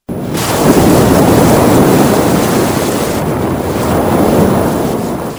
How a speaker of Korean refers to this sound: 하지만 폭풍은 오히려 더 거세졌고 사나운 파도의 배가 곧 뒤집힐 것만 같았습니다.